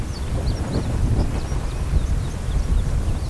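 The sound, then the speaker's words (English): A continuous deep, rough rumble of mining overburden rock and debris, dumped in big loads by rock trucks at a former coal mine, sliding down a mountainside. It is steady and loud throughout, with a gritty low roar and faint scattered higher crackles, no voices. “that's a big chunk of a mountain sliding down”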